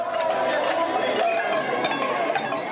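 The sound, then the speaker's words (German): A large street protest crowd of tens of thousands in Paris, France, in early May, protesting against a pension reform, fills the air with dense, overlapping voices and shouting, a steady and loud wall of noise with scattered clinks and bursts rising from the throng. “So klingt Paris Anfang Mai.”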